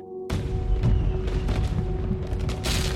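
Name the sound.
fireworks bursting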